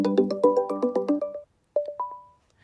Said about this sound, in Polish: dzwonię i zobaczymy, co z tego wyjdzie. Wyjdzie, tak jest, tylko teraz tu mam... O, y, połączenie głosowe. No to próbujemy tutaj dzwonek.